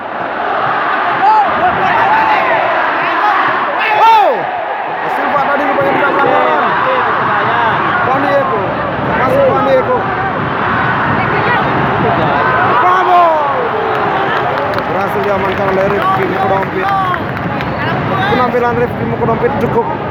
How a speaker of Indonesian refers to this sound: Gila suasana, Gila suasana stadion bro. Dua sisi bersamaan nih. Sisi utara dan sisi selatan.